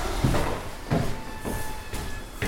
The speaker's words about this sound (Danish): Døren er åben. skal lige at lukke døren efter mig.